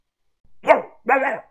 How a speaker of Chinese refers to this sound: 死狗，再叫我砸死你！我扔了一块石头，把村里的狗吓跑了。